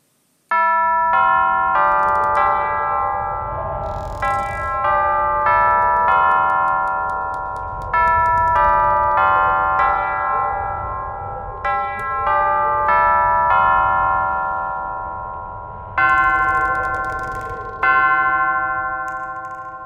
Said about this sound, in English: It is the middle of the night, and the clock has struck two times. One hour until witching hour.